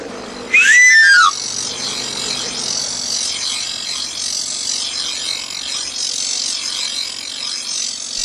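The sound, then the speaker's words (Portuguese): An itinerant knife grinder's bright, quick whistle run rings out once, then a steady, rasping grind of a blade against a spinning wheel carries on for several seconds with no voices. “O som dos amuladores traz-vos ressonâncias longínquas e amáveis”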